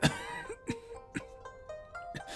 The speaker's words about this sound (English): It looks like some assassin has poisoned your grandfather, she says without surprise or emotion. The old man coughs more blood onto the ground.